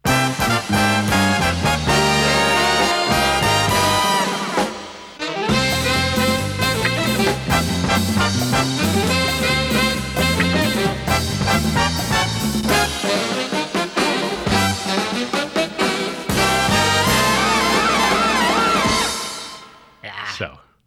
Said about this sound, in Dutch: De eerste 20 jaar is dit de opening geweest van Studio Sport. Ehm, en ja, het is echt een prachtige tune.